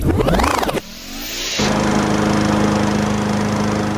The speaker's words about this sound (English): Since when is this the sound of kindness? You know, you know what that is, right? A lawnmower? Yeah, exactly.